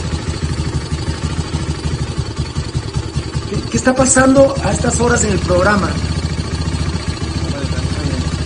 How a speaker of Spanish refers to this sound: ¿Ustedes escucharon la moto otra vez? No. Ahí está. Ahí creo que anda, fíjate. Pero sí, pero se apaga igual, fíjate vos.